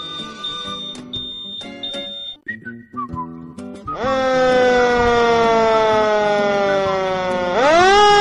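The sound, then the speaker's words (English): A few brief, high whistle-like notes give way to a loud fire engine siren that wails steadily as the fire engine arrives, its pitch slowly sinking before sweeping back up at the end. “Look, here comes the fire engine, says one little monkey.”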